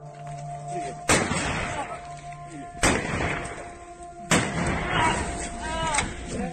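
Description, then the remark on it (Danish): Three loud gunshots ring out about a second and a half apart as captured soldiers are shot in the leg, each cracking sharply over a noisy background of agitated voices and shouting. “Tre tilfangetagende soldater bliver skudt i benet.”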